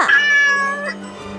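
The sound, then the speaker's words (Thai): A single drawn-out cat meow, fairly loud, rising then slowly trailing off over about a second, with nothing else around it. “แต่แมวก็ได้ตอบไปว่า มันไม่ใช่โกงการอะไรของข้า”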